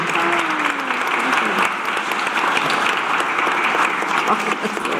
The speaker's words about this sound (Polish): Filip Metzner, wielkie brawa, słuchajcie, bardzo, bardzo dziękuję. dziękuję.